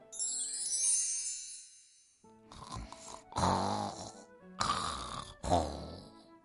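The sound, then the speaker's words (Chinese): A soft, sparkling chime shimmers and fades, then a white-browed tiger sleeping out in the open deep in a forest snores loudly in four deep, rumbling, rasping bursts with brief pauses between them. No one speaks. “森林深处传来了震天响的呼噜声，踏足这片区域的小动物听到这个声音，都十分乖巧的跑远了。”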